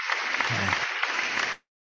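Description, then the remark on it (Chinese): A burst of applause welcoming the founder of the Fuyou Wenchuang company, many hands clapping in a dense, steady wash for about a second and a half before cutting off abruptly into silence. “那所以我们呢就用最热情的掌声呢来欢迎我们福佑文创的创办人”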